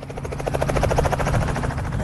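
Steady, loud helicopter noise with the rhythmic thudding chop of rotor blades over a constant engine whine, filling the whole stretch without any voices, as a 16-year-old girl rides in a helicopter for the first time.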